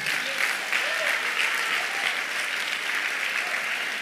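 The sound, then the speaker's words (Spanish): An audience applauds Jesus during a church service, steadily for the full four seconds, a dense, even wash of many hands clapping at once, with a few faint voices calling out underneath. “¿Alguien puede aplaudir a Jesús?”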